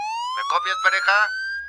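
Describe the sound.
A police siren from a second police patrol car arriving at the scene wails steadily, its tone slowly rising, while a voice talks briefly over it in the middle before the siren carries on alone.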